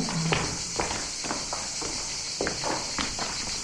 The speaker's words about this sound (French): On entend les cigales.